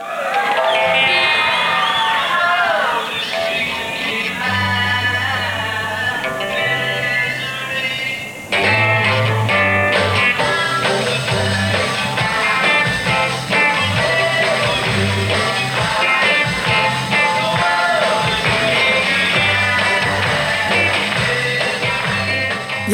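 A loud 1963 live concert recording with a band playing over constant crowd noise, screaming and shouting from the audience throughout, someone shouting a song request, with a brief dip around eight seconds before the din resumes.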